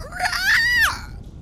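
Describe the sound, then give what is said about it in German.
A single shrill, strained scream from a person imitating a goblin running out of a cave, rising in pitch and then dropping off after about a second, loud with no other talking. “Der Goblin rennt raus aus dem aus der Höhle. Ihr hört einen einen Schrei vom Goblin”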